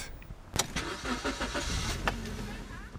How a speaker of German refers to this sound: Wir fahren mit dem Auto zur nahen Küste, dahin, wo damals die Deiche gebrochen sind.